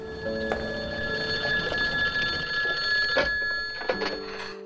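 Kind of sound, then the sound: signal or alarm, telephone ringing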